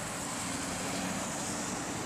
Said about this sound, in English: And this is ether. It's a wideband receiver that makes them audible to the human ear. Ether is a kind of anti-radio. Instead of being tuned to a specific radio station, it receives all the interference and radiation that the traditional radio